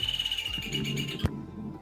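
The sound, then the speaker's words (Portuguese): Small birds chirp loudly and continuously, a dense high-pitched chorus of tweets, cut off abruptly after a brief thump near the end, leaving only low background hum. “Os passarinhos ficaram loucos aqui.”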